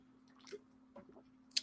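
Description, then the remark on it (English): Wet slurping of Maruchan instant ramen noodles: a couple of soft, squishy sucking sounds, then a louder, sharper slurp at the end, over a low steady hum with no talking. “Hello, you just um, caught me on my second maruchan for today. It says good etiquette. It's good etiquette to slurp your.”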